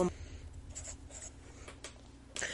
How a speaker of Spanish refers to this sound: Perdón, estaba comiendo gomitas, ya retiré ese sonido tan desagradable. No, no mi voz, el sonido de cuando estaba masticando.